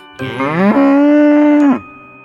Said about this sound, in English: She saw the cow hanging from the roof.